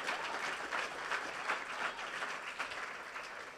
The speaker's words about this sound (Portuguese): Pode aplaudir, meu irmão, aplaude o Senhor.